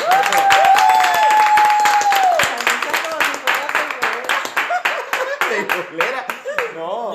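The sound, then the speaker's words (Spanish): An audience applauds to welcome a guest, with dense, steady clapping throughout. A long, sustained whistle rings out over the first couple of seconds, and cheering voices mix into the clapping as it continues. “Ahora sí que le damos la bienvenida y con aplausos, ahora sí, por favor, ¿no?”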